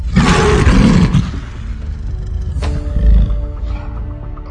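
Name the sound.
lion roar sound effect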